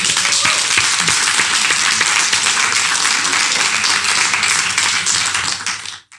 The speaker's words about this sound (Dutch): Dankjewel voor jullie aandacht. Een applaus voor jezelf.